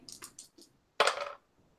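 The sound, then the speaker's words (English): Two six-sided dice clatter onto a table: a few quick light clicks, then a sharper, louder rattling tumble that settles after a moment, both landing on six, without any talking. “Um, but because you are the face of the group, roll 2d6 and tell me what the higher dice is.”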